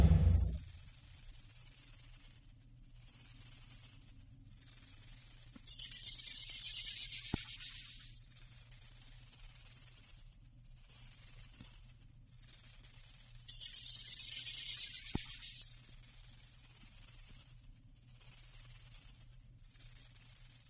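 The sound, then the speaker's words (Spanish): A rattlesnake rattles in a continuous dry, hissing buzz for about twenty seconds, fairly loud, swelling and easing in intensity every few seconds. No one speaks. “Es una cascabel, una serpiente cascabel, uno de los sonidos más terroríficos em, del mundo animal, sin duda.”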